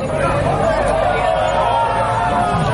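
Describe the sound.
A bar crowd in Pinheiros roars and shouts together during a football match, reacting to a foul, a loud, dense wall of overlapping voices that holds steady for about three seconds.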